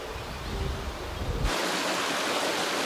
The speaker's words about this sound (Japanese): 今朝は名水百選フーップ川の涼しげな音色